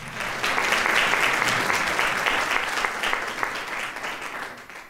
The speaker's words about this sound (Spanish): Denle un aplauso